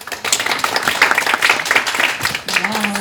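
An audience at an International Women's Day event breaks into warm applause for themselves, a dense crackle of many hands clapping steadily at a fairly loud level, with a brief sustained tone emerging near the end.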